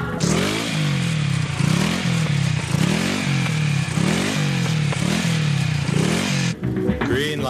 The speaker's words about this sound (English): What's wrong? Our motorcycle is stalled and we have to start all over again.